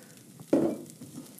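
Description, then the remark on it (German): Vegetables sizzle in hot oil after more oil has just been added, with a sudden burst of crackling as they are stirred, then a softer, steady hiss with faint scraping. “Rühre es wieder um.”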